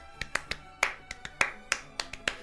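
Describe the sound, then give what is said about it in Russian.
Crisp hand claps ring out in a quick, syncopated flamenco rhythm, about a dozen sharp strikes with uneven accents, some landing harder than others, over a faint sustained musical backdrop; in a music track, the claps are layered over guitar picking. “ты слышишь э, в определенной части вот эти вот ритмичные присущие фламенко хлопки,”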